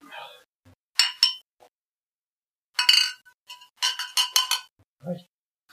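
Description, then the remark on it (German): Glasses clink together in a toast, several bright ringing taps in quick bursts spaced across a few seconds, with a brief murmur of voices near the end. “Prost.”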